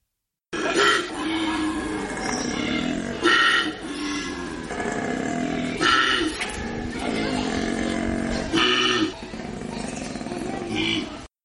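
A koala's bellowing call: a continuous low, rasping snore-like drone broken by repeated louder grunting pulses in a steady rhythm, running for about eleven seconds with no talk.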